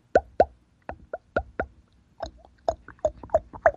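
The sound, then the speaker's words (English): A series of about fourteen sharp, wet lip pops, fairly loud, coming in uneven bursts and pairs with short pauses between, with no talking. A caller pops his lips to attract a bull elk; the sound is said to carry 200 yards. “But if you just kind of pop your lips a little bit, kind of”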